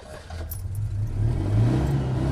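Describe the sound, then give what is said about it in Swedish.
A small 27-horsepower two-cylinder car engine revs with a low, throbbing rumble that builds steadily in loudness, a faint metallic jingle riding over it; no one speaks. “Två cylindrar vet du, som spinner som en katt.”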